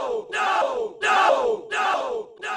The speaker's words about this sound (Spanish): Mientras los estudiantes se acercaban con los policías que los acompañaban, los sonians comenzaron a gritar.